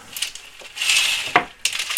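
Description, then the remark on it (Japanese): A curtain in a child's bedroom being pulled open: a hissing, sliding swish followed by a sharp clack and another brisk rustling slide, with faint metallic clinks like rings on a rail. No one speaks. “ちょっとカーテンを開けました”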